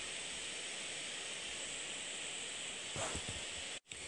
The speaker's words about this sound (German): Ja, jetzt hört ihr wieder im Laptop. Aber ich hoffe, es stört euch nicht so.